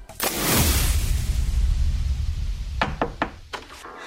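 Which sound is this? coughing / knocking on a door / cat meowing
knocking on a door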